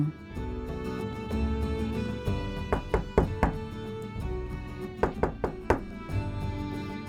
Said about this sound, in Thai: เมื่อกุชโฉมาถึงบ้านของลุงอัมโบซิโอเขาเคาะประตูปังปัง